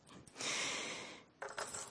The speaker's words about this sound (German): Das heißt, um diese Türen aufzumachen, ist der Schlüssel immens wichtig und ich brauche diesen Schlüsselbund und deswegen hängt hier auch so viel dran, weil ich leider die Angewohnheit habe, ihn überall zu vergessen.